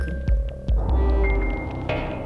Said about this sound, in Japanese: 強く分厚く打つ鼓動そして分厚い切れ目のない風のような音